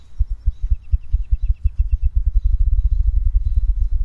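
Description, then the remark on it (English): A spruce grouse on a trail near a visitor centre gives a very low, deep call: a rapid series of muffled thumping pulses, steady, with a faint thin chirping from another bird higher above it. “Was it spruce grouse? Yeah. I think so. Grouse have a very low, deep call.”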